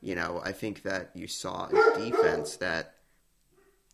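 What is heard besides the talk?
dog barking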